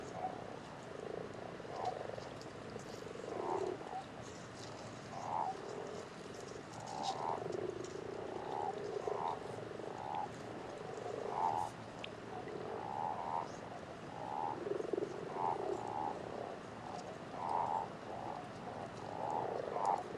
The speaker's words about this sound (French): Là, on entend bien la différence entre crapauds qui croassent et grenouilles qui recoulent.